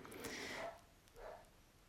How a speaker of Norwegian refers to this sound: Hører du hunden? Vet ikke hva han gjør på. Ja, jeg har to hunder. Og akkurat nå fant de ut at de skulle begynne å gjøy klokka ti på seks om morgenen ja, ja.